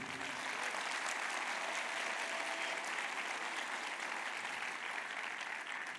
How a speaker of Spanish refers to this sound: ¿Cuánto un aplauso al Señor por ese desayuno?